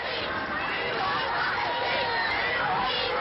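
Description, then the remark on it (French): A dense British crowd in Trafalgar Square, London, roars and cheers continuously with joy at the victory announcement on 8 May 1945, a loud, sustained wall of overlapping shouts and voices with no pauses. “La foule britannique n'est pas si flegmatique qu'on le dit, et elle crie sa joie.”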